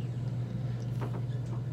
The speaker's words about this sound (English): The pipes in your wall yeah, sound like race cars.